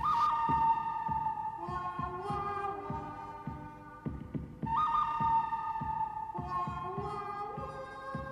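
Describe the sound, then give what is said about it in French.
A whistled melody in a western film style rises and holds long notes over a steady, loping rhythmic accompaniment with plucked, galloping beats, fairly loud and continuous throughout. “un simple sifflement te rappelle directement où t'es.”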